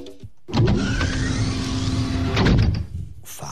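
A modern motorized door slides open with a steady electric whir and mechanical hum lasting a couple of seconds, then stops with a soft thud. No voices are heard.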